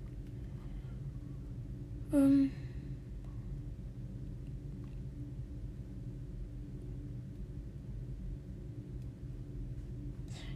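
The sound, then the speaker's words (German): A steady, deep explosion rumble from a video game as a whole house explodes, rolling on for the whole stretch, dense and low, with a brief hesitant vocal sound from a person early on. “Da, das komplette Haus ist explodiert.”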